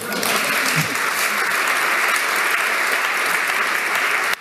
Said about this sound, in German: Können wir einmal mal einen Applaus für machen.